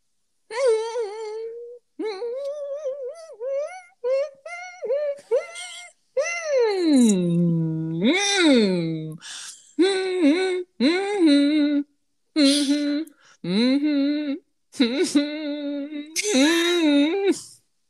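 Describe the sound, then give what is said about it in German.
A single person hums a pop song melody alone in short bouncy phrases with brief pauses, then a long sliding, wavering note before the quick phrases return, humming along to the song playing in the background as part of a song-guessing game. “hörst nur mein Gesumme.”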